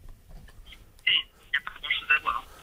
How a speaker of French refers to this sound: Alors, ça ne marche pas du tout hein, au niveau téléphone.